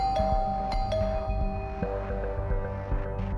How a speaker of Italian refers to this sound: Così decide di andare a trovarlo direttamente a casa. Suona il campanello.